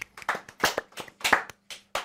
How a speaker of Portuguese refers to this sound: É aquela palma solta no meio do vazio, não é?